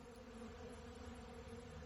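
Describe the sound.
A voice imitates a buzzing bee with a steady, droning hum that holds unbroken for about two seconds. It is fairly quiet, with no talking.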